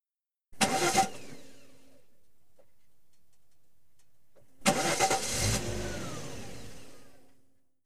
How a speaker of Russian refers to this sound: Двигатель не заводился. Да, не везет так не везет. Он сделал еще одну попытку.